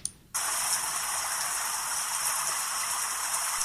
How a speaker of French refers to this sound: C'est la pluie, une bonne pluie du Nord.